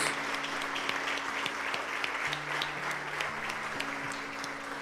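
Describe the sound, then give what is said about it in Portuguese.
A church audience applauds the name of the Lord after a prayer, steadily, a dense wash of many hands clapping at an even level throughout, with a low sustained organ-like tone humming underneath. “Se Deus falou com você, assim como falou comigo, aplauda o nome do Senhor.”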